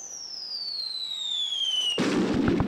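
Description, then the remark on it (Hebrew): A high whistle slides steadily downward for about two seconds, then a loud explosion erupts into crackling, rumbling debris: an artillery shell falling in Jerusalem during Israel's War of Independence, amid gunfire. “אבל זה מסוכן, נופלים פה פגזים, יורים פה יריות.”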